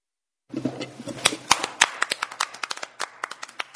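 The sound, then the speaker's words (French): Applause from a small group echoes through an empty hall: quick, sharp claps arriving in an uneven patter, each ringing out with a resonant tail, holding a steady moderate level for a few seconds. “on n'applaudit pas fort, mais euh, comme la salle euh, est vide, ça résonne énormément, mais le, cœur y est.”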